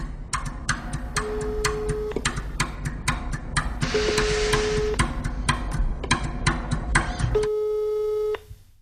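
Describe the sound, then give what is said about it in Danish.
A telephone ringing tone as someone calls a phone number: three steady one-second beeps spaced a few seconds apart, over a busy bed of sharp rapid clicks and ticks, with no one speaking. “Han giver mig det her telefonnummer, og øh, jeg ringer op”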